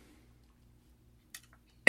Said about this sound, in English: Ooh, excuse me, I've got the cough this morning.